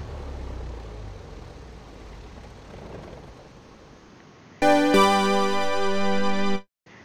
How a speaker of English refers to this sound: And you can shut off your engine like you would Microsoft Flight Simulator X, just Control Shift F1.